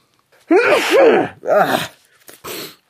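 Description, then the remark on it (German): A loud, theatrical sneeze into the crook of the arm: two long voiced 'ah-ah' build-ups with wavering pitch, then a short breathy, muffled burst to finish. No speech alongside it. “Wenn ich niesen muss, dann mache ich das, pass auf, so hier, in die Armbeuge.”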